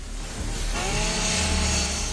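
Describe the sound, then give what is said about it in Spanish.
Two chainsaws, used by women, grind steadily through the metal shutter of a shop, a loud continuous buzzing whine with a rising high-pitched scrape partway through, no voices over it. “Las chicas cortan el cierre metálico.”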